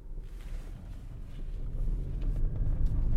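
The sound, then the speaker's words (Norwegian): A steady low engine rumble from inside a car driving up from just outside Kristiansand, Norway, with road noise building slightly over the few seconds and no voices. “Og så jeg bare satt meg i bilen og kjørte opp.”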